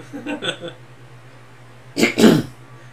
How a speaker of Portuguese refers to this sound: Pigarros. Aí. Eu vou deixar o pigarro.